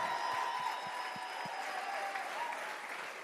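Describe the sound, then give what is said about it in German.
An audience at Ecclesia Church applauds for Jesus in a steady, dense wash of clapping that holds loud and even throughout, with a few low thumps at the start and no talking over it. “Lass uns Jesus mal noch einen besseren Jesus, Applaus geben.”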